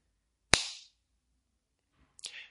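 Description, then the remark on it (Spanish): Two sharp slapping claps, like a hand smacking skin, demonstrating the sound of a slap to the cheek, separated by a pause of over a second; the second is slightly softer, each with a short bright ring-off. “un sonido parecido al de una palmada, al de una palmada, ¿sí?”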